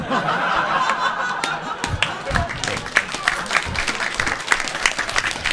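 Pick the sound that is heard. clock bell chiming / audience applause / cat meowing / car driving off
audience applause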